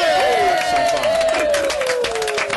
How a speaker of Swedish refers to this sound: Applåder och skit.